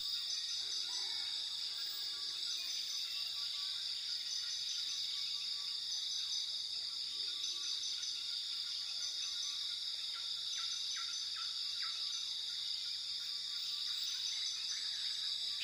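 A steady, dense rainforest chorus of buzzing insects and cricket-like trills fills the air, with occasional soft bird calls scattered faintly through the background. No one speaks.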